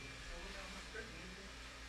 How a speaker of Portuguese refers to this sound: Quando o secador dá uma parada ali, mano, já vai ficar tranquilo, vocês vão conseguir ouvir ele de boa, tá?